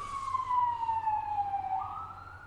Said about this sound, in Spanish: pasó una ambulancia, pero ya dejemos que pase. No, qué pesado. Y que se escucha, pues niña, estamos en una ciudad que se mueve. Aquí pasan ambulancias y bomberos toda la noche, todo el día.